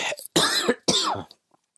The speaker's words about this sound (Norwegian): Beklager hosting.